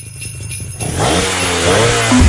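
A car engine starts up and revs hard, its pitch climbing in a rising roar that stays loud through to the end, with no voices.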